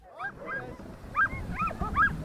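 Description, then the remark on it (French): A team of 24 sled dogs on an expedition toward the Rocky Mountains barks and whines excitedly, overlapping yips and high whimpers rising over a rumbling, busy background, continuous throughout. “Accompagné de coéquipiers, mais aussi de ses autres compagnons de route, 12 chevaux et 24 chiens de traîneau, il parcourt pendant un an et demi les 7000 km qui relient les montagnes rocheuses à l'ouest américain.”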